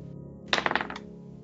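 A die clatters across a table in a quick burst of about five sharp, bright clicks and taps over half a second, settling quickly, with a low steady hum underneath.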